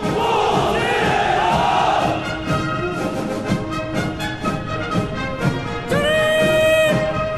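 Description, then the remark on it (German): A massive crowd of voices shouts in loud unison at the military parade celebrating the 70th anniversary of the People's Republic of China on 1 October, the chant-like cry rising and holding in sustained, swelling waves over a steady roar. “Das, was ihr da im Hintergrund hört, ist die gigantische Militärparade, mit der die Volksrepublik China am 1.”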